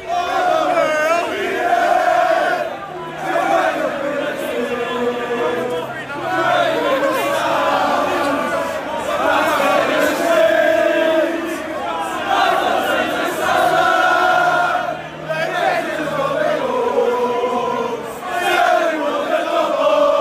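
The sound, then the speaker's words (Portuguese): A big crowd of City football fans sings a chant mocking Liverpool, set to the same rhythm as another song with similar lyrics, in loud, steady unison, the melody rising and falling in a repeating rhythm that fills the stands without a break. “E o City começou a cantar uma música que eles inventaram o mesmo ritmo, com a letra parecida, mas zoando o Liverpool agora que essa rivalidade está ficando, tá ficando quente.”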